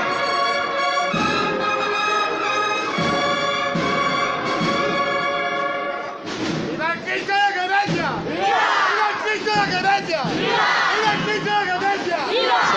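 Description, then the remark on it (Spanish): A crowd shouts loud, rising cheers of "viva" at a religious procession while a bell is rung and the float is raised right in front of the door it has just come out of, many voices overlapping in a continuous roar that swells and stays strong throughout. “ustedes los vivas mientras se toca la campana y arriba el paso justo delante de la puerta por la que ha salido hace unos instantes.”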